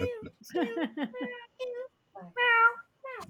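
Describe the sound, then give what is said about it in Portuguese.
A female cat named Billy meows repeatedly: a quick run of short, chirpy meows, then a longer drawn-out meow and one last brief call. “Ela adora podcast. Toda vez que a gente tá gravando alguma coisa, ela aparece e começa...”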